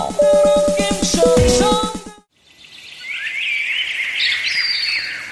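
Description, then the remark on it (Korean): A short burst of tonal, pulsing music stops abruptly, then birds sing in a forest on Chiaksan mountain in Wonju, Gangwon Province, South Korea: a tangle of high, thin chirps and trilling phrases over a steady, soft background hiss. “매년 4월이면 한국을 들러 북쪽으로 가는 나그네 새와 번식하기 위해 찾는 여름철 새, 월동을 마치고 아직 떠나지 않은 겨울철 새, 사계절 내내 머무는 텃새까지 아주 다양한 종류의 새들을 관찰할 수 있는 아주 좋은 시기입니다”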